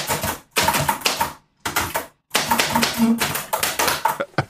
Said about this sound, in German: ich habe hier eine Schreibmaschine an, an meinem Schreibtisch. Soll ich mal, schreib mal Hallo Glückler.